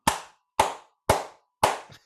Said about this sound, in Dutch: Nou ja, het, probleem is gewoon met een applaus. Het is toch een soort applaus.